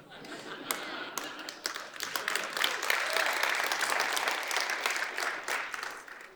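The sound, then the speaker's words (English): A crowd applauds steadily for several seconds, dense clapping swelling to a sustained roar before gradually tapering off. “Now you can clap again for that if you want.”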